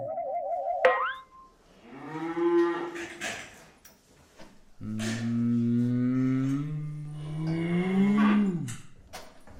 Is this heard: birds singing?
no